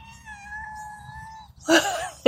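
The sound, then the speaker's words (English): A cat at an office window lets out one long, drawn-out, plaintive meow, held steady for over a second, followed by a short burst of noisy rustling. “you guys hear that pitiful meow?”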